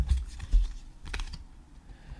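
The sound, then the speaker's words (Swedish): A few light taps and a soft papery flick as a small Trivial Pursuit card is handled and turned over, quiet and brief, with no voices. “Så vi ska se vad det står på TP-kortet. Jag vänder på det.”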